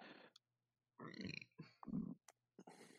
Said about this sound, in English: I think we just burped at the same time.